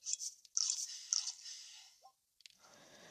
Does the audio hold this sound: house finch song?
no